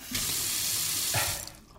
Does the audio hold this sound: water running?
yes